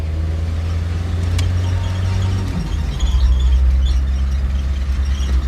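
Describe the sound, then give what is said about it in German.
A car engine rumbles steadily and loudly on a bumpy road through a lonely wooded area, its low drone shifting pitch partway through as another car approaches from the opposite direction. No one speaks. “Ein Auto kommt uns entgegen.”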